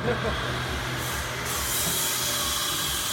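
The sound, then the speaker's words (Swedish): A heavy vehicle idles and rumbles while backing in through a door into a building at a concrete factory, with a loud, sustained hiss of air brakes rising partway through. “och så öppnas där en port inne i lokalen och de backar in eh, bilen”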